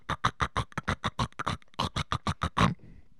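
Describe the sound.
A voice imitates Fritos corn chips cooking with a fast, rhythmic run of about eighteen short, gruff, crackling bursts, loud, ending abruptly with a brief faint hiss.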